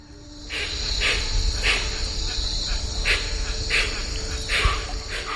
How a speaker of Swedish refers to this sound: Den femte eller sjätte dagen hörde hon ett väldigt bekant ljud. Det var en speciell typ av fågel som kallas för huatzin. Det är en fågel med ett väldigt distinkt läte. Den låter så här.